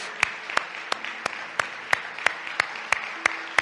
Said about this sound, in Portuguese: E uma vez que estés de pé, dê outra vez um aplauso a Jesus Cristo. Ele merece.